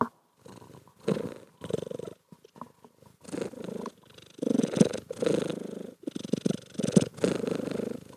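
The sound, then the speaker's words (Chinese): A cat purrs on its own, a low, buzzy rumble that swells and fades in repeated breaths of about a second each, with a few short pauses between. The purring cat is the family's pet cat, Zhima. “好啦，当然就是呢，就是今天要来访问的，就是我们家的猫啦。”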